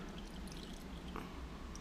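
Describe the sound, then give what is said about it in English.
Liquid pours in a soft, steady trickle for a couple of seconds, quiet, with faint wet splashing as it spills onto a table. “Don't just pour it more.”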